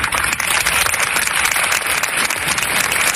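A steady burst of applause from a crowd, dense and continuous clapping at a fairly loud level throughout, with no voices standing out.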